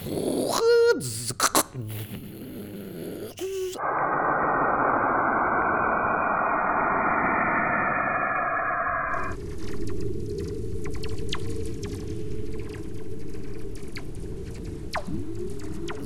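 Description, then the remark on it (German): Sonified radio waves from space: a few quick eerie chirps, then a long steady rushing drone that shifts midway into a crackly, hissing texture, loud and continuous with no voices. “Und diese Töne sind sehr fremd. Also es hört sich ungefähr so an.”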